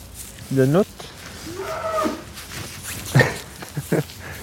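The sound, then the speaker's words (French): A cow gives a short moo, followed by a few softer, brief lowing sounds scattered over the next few seconds against a quiet, rustling background, outdoors on a cold day. “C'est le moment de la vache.”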